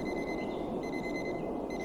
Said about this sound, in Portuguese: Conseguem ouvir? É como a história da árvore e da floresta. Se eu não estivesse a passar agora pela hum, Rua Cândido dos Reis, este despertador estaria a tocar?